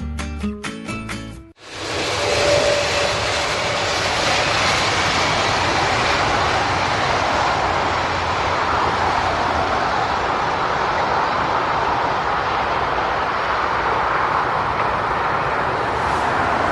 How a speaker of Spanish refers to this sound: Es sonido, no, no es en directo, de tren. Ojalá el sonido del tren y de los trenes fuera un habitual en nuestra provincia. Pero no es así.